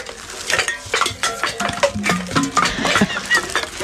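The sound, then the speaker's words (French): Empty drink cans, taken from a bag for a talk about deposit returns, clatter and clink as they are handled in a TV studio, a steady, busy jumble of bright metallic knocks and scrapes for several seconds, with no one speaking. “Alors j'ai sorti toutes mes canettes pour toi. Regarde, j'en ai, j'ai tout un sac.”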